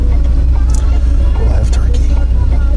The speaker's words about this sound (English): Okay, now it seems busy. It's like there's a traffic jam here in the parking lot, ladies and gentlemen. It's like we should have a, traffic copter here. Where are all these people coming from?